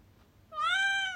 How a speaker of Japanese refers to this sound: 収録したりライブするたびに猫が泣き ねえいっぱい喋ったね